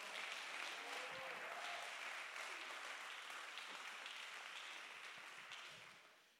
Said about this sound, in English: If anybody believes that, you ought to clap your hands right now.